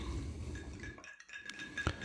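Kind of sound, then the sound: household object, ice cubes clinking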